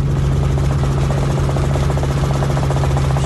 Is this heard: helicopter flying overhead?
yes